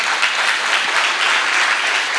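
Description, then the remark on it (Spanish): An audience breaks into sustained applause for the Lord, a dense, even wash of many hands clapping at steady loudness with no voices standing out. “¿Quién puede darle un aplauso al Señor por eso?”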